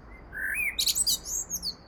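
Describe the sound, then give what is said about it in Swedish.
A common blackbird in a city sings a short phrase, a rising fluted whistle followed by a quick burst of high, squeaky twittering notes, clear over a low background hum. “Men med industrimiljöernas och städernas framväxt på 1800-talet blev koltrasten plötsligt en del av staden. Och i staden både syns och hörs den.”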